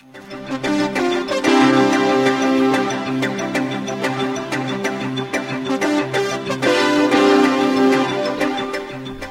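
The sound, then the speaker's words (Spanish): Steady, full-band music played on the radio show Sábado en Metrópoli, Buenos Días Metrópoli 750, on a cold morning, continuously at a fairly loud, even level, with sustained harmonic tones and regular percussive hits giving a clear rhythmic pulse, and no voices over it. “Pues bien, ¿qué le parece si le ponemos un poquito de música también a esta fría mañana?”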